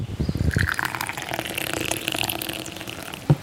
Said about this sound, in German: gießt sich in dem kleinen Patio seines Hauses süßen arabischen Tee in die kleine Tasse.